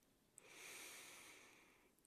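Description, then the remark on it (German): A long, steady breath out during a guided breathing exercise, with a soft airy hiss that lasts well over a second and then fades, followed by a brief click. No one speaks. “Atmen Sie noch einmal lange und deutlich aus.”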